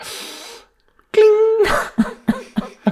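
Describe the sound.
A voice imitates a fork sticking magnetically to a body, metal on metal: a breathy hiss, then a short buzzing hum and a rough burst, followed by four quick rhythmic clunks, fairly loud.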